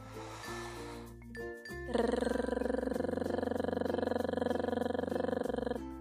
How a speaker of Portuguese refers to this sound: Para o segundo exercício, o trrr, a famosa vibração de língua, parecendo um despertador antigo. Inspire e então vibre a língua com suavidade, nada de colocar força.